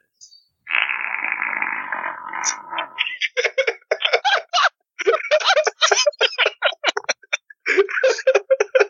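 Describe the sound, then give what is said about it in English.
A person blows a long, buzzy mouth raspberry mimicking a fart, then follows with a rapid run of short, sputtering bursts that blend into laughter, fairly loud. “do I need to edit in a fart sound here? Of course. Here, I'll give you, I'll give you some.”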